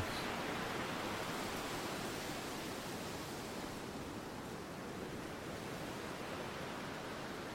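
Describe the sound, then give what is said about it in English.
A dense, steady roar of an ocean wave tipping over and breaking into churning sea foam, loud, a broad hissing wash that holds without pause and with no voices. “The white horse turning imminently into a frenzy of sea foam and noise.”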